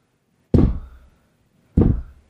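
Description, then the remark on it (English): Two heavy, booming thuds pound on a wooden trap door covered with a desk and chairs, about a second apart, each with a deep low-end thump and a short ringing decay. Loud, no voices. “And and as you're taking in that horrific vista, you begin to hear the pounding”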